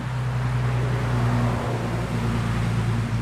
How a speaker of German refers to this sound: Selbst wenn wenig los ist, gleicht der Sound der Great Smoky Mountains einer gut befahrenen Landstraße.